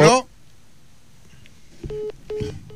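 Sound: telephone tones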